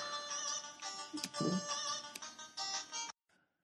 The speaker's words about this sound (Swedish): Ja, i NES-version såklart. Ja, naturligtvis. Alla signaler i mobilen är NES-signaler.